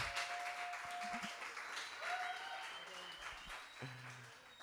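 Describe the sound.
Audience applause fills the stretch, a dense, steady patter of many hands clapping at even loudness, with brief tonal bits and murmurs of voices woven through it.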